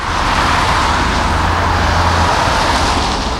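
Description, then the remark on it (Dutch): Steady, loud road traffic rushes past a roadwork zone, cars driving along the left side of the work area, a continuous roar of cars and heavier vehicles with a low engine drone underneath, no voices present. “Wat je ziet is ja, de auto's raken links langs het werkvak rijden.”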